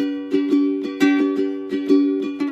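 A ukulele is strummed in a lively, syncopated rhythm, roughly nine bright strokes over sustained ringing chords, clear with no voices, as an example of a treatment for disorders like anxiety and PTSD.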